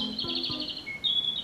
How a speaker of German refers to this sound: Das ist das Rotkehlchen. Nur eine Handvoll Vogel, mit einer orangenen Brust und orangener Kehle, Daher auch der Name. Rot, Kehlchen. Der Bauch ist hell und der Rest ist braun.